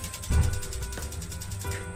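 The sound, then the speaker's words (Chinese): A gas stove being switched on to heat a pot of oil: a sharp mechanical click of the knob followed by a second click, then a low steady hiss and rumble of the burner flame. “好，我们现在把油，尽可能多的油倒到锅里，然后把火打开。”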